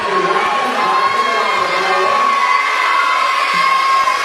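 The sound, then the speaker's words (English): A basketball crowd roars steadily during free throws at a game, a loud, dense wall of cheering and shouting with high whoops and yells riding over it, holding at full intensity without a break. “This place is getting a little crazy, a little bit out of hand.”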